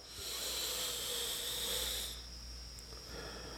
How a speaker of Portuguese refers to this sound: E procure sempre fazer uma respiração completa, uma respiração profunda. Eu vou respirar agora aqui, inclusive, para poder puxar esse prana, esse ar.